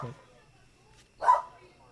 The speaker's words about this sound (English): You're gonna you're gonna have fun editing because there's gonna be a lot of barks on my end. Mm-hmm. I don't know if you can hear that right now.